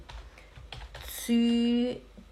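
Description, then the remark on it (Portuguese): A short burst of light, quick computer-keyboard taps, fairly quiet, as Zürich is typed with U-E in place of ü, followed by a steady held voiced tone lasting about half a second. “Se você não tem o u no seu teclado, então você escreve”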